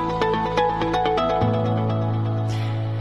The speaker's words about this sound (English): When I hear this jingle, I was just thinking now, when I hear the end of that little ad, then I always think, oh, Friday's here.